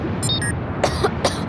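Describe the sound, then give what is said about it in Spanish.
Three quick, harsh coughs in close succession over a low rumbling background, preceded by a few brief high-pitched tones, as an erupting volcano spews a lot of dust. “el volcán está botando mucho polvo.”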